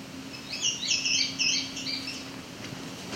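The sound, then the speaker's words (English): A single male indigo bunting sings a quick series of high, sweet, paired notes lasting about two seconds, over a faint steady low hum and light outdoor background. “Seems like just the one veil wants to sing right now.”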